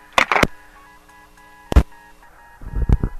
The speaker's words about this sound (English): This is hooked up to like an old style like landline thing, so there's all this buzzing stuff in it. And when the phone calls come in, there's like a bunch of caller ID noise. It's pretty crazy.